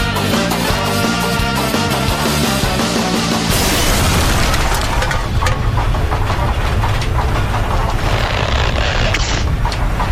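Music plays for a few seconds, then cuts into a loud explosion from the song's music video, with a heavy, sustained low rumble and roaring noise that carries on to the end, with no speech.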